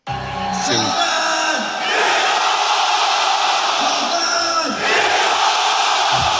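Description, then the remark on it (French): Fighter Cédric Doumbé, during his ring entrance at the Zénith de Paris, gives a loud, drawn-out yell of his opponent's first name, Jordan, and a crowd of about 6,000 roars it back in unison, chanting in two big surging waves that fill the arena. “Surréaliste, Cédric Doumbé hurle le prénom de son adversaire, Jordan en l'occurrence, et la foule reprend.”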